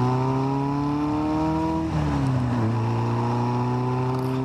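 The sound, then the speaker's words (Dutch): A self-built Lotus Super 7 sports car with a 1600 Ford engine and Weber downdraft carburettor revs steadily with a rich harmonic drone, dips briefly as it shifts, then climbs and holds again, loud with no talking. “Eh, even, eh, het klonk wel zo lekker.”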